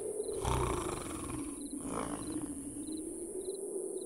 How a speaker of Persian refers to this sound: با صدای خور و پف خسرو به خودش اومد